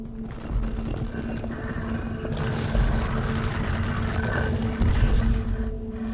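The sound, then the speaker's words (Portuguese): A heavy mechanism grinds and rumbles steadily with a low droning hum, building slightly in loudness as a hidden bookcase slides inward like a door. A book tilted like a lever set it off. Continuous, with no voices. “a hora que você tenta tirar ele da estante, você, sua mão sai em falso, o livro fica preso ainda na estante, só que empinadinho, como se numa posição de alavanca, e você começa a ouvir um barulho de mecanismo”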